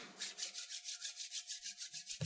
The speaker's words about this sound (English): is the sound of me rubbing my hands together.